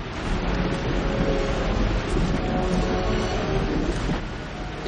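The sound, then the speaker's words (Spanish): A waterfall churns a river of melted chocolate in a chocolate factory, mixing and whipping the chocolate, in a steady, dense roar of rushing liquid with a deep rumble underneath, holding an even loudness throughout with no voices. “La cascada es muy importante. Mezcla el chocolate, lo bate, lo hace ligero y espumoso.”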